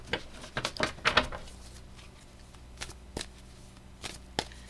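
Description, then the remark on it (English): Tarot cards being handled and shuffled while three cards are chosen for the upcoming week: a cluster of crisp papery flicks and snaps early on, then scattered single riffles and taps, fairly quiet with no talking. “All right, let's choose our three cards, shall we? For the upcoming week.”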